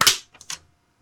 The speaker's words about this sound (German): Boah, Alter, was war das denn? Ein Klatsche, was denn? Ich bin ein bisschen abgerutscht. Ja, das ist richtig, aber das sah so aus, als wäre da deine ganze Einrichtung zusammengebrochen beim ja, Klatschen. Ist sie auch.